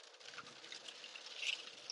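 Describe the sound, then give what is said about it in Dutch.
Steady, dense patter of heavy rain drumming on a car windshield, a continuous hiss of countless drops with no voices, fairly soft, swelling slightly toward the end. “Ik ga hem lekker eh, afsluiten, want ik merk eh, dat ik mezelf amper kan horen met die harde regen op de vooruit.”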